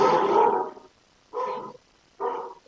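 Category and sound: animal, dog barking and growling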